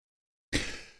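A single sneeze bursts out suddenly after a moment of silence, sharp and breathy at the start, then trailing off, with no talking.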